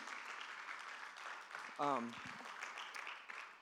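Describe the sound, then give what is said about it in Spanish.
A church audience, standing, claps after a sermon in a steady, dense wash of applause throughout, with one voice briefly calling out loudly in the middle before the clapping carries on. “Dale un aplauso Señor por esa palabra.”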